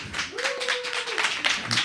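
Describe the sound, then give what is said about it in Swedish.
Audience applause at Fontänhuset Sköndal during a Radio Total Normal broadcast: a dense, steady patter of many hands clapping throughout, with a single sustained tone, like a held whistle or hum, rising over it through the middle. “Jag vill ha applåder. Applåder är bra.”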